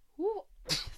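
A single sneeze: a quick rising intake of breath followed by a sharp, noisy burst of air. It sounds small and fairly light, with no talking.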